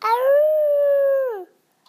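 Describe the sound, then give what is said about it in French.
A single sustained wolf howl, loud, swelling on a steady mournful pitch for over a second before sliding down and fading into silence. “of the night. What sweet music they make.”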